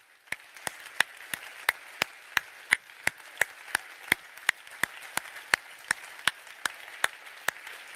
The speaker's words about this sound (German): Und ich überlasse jetzt für zehn Sekunden Gott die Bühne und lass uns einfach einen Riesenapplaus geben. Du sagst, Gott, ich traue dir das zu, auch meine 0% etwas zu machen. Okay, lass uns Gott jetzt einen Applaus geben. Er hat es verdient.